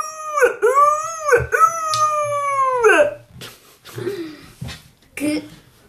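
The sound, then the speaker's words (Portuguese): A voice imitates a whale call with long, wavering, howl-like moans that swoop up and down for about three seconds, followed by softer breathy vocal sounds. “na língua dele, eh, quer dizer, na língua dela, queria dizer”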